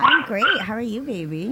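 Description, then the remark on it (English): A small Maltese dog yaps and yips in short, high bursts, mostly at the start, barking at its owner's singing, while a person speaks over it in an affectionate tone. “I hear the dogs are are, are barking in the oh, background.”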